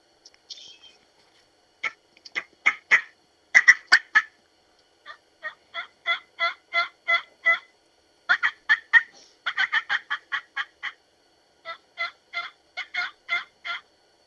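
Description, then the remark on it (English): Raspy turkey yelps blown on a VCO three-reed mouth call, fairly loud in several quick runs of four to eight notes separated by short pauses, with no talking. “the next one that I've put in the line for the VIP call is our three reed VCO”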